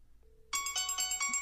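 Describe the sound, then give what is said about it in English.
A phone ringtone plays the Halloween theme, a bright, repeating melodic tune with quick pulsing notes, loud, starting abruptly after a brief faint tone and continuing without any talking. “It's the Halloween theme.”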